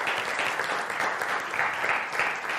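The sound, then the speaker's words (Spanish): Steady applause from a crowd, given to God, a dense, continuous patter of many hands clapping at even loudness throughout, with no voices rising above it. “Y dale el aplauso a Dios, Él se lo merece.”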